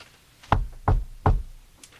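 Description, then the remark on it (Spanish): Three firm, evenly spaced knocks on a heavy street door at night, loud with a solid wooden thud, followed by quiet. “De repente, se escuchan unos golpes en la puerta de la calle.”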